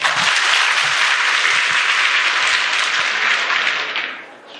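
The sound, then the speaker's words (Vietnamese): Sustained applause from a group of monastic students and their teacher for a student's answer about happiness, a dense wash of many hands clapping steadily and loudly for about four seconds before tapering off slightly at the end, with no one talking. “hay quá cho thằng pháo tay nữa đi”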